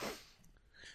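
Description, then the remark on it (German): A single short sneeze bursts out at the start, a sharp breathy blast that quickly fades into soft background noise. It is fairly quiet, with no talking. “Gesundheit.”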